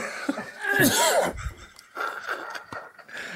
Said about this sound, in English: I'm gonna I'm gonna cough, but we're gonna edit this out, right? I bet I got some goddamn sawdust trapped in my throat.